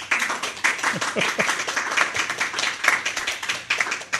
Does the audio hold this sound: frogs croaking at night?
no